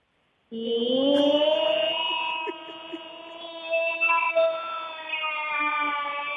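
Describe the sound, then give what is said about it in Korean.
A civil defense air raid siren wails, its tone rising at the start and then holding a loud, steady pitch for several seconds, with no voices over it. “여기는 민방위 본부, 민방위 본부입니다.”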